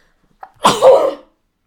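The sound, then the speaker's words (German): A single fairly loud sneeze: a short sharp intake followed by a bursting, breathy explosion lasting about half a second, with no talking. “Gesundheit.”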